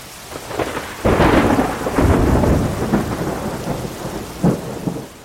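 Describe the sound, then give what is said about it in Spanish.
Heavy rain pours steadily while deep thunder rumbles and cracks loudly, with a second rolling boom partway through and a brief final clap, no voices present; a fearsome storm at sea on 13 February 1493 that separated the caravels Niña and Pinta. “El 13 de febrero una tormenta pavorosa separó a los dos barcos.”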